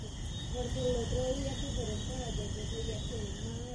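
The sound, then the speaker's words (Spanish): Crickets chirp in a steady, continuous high-pitched drone at night in a small plaza, while a voice speaks softly underneath, creating a calm nighttime ambience. “Yo aún no me levanto de mi sitio, aguardo hasta que el chillido de los grillos y el fresco de la noche se adueñen del lugar.”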